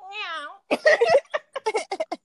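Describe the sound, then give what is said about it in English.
A person imitates a cat purring with a short, wavering, drawn-out vocal sound, and then a voice starts talking right after. “We don't turn into a cat in my dream. Wake up, purr.”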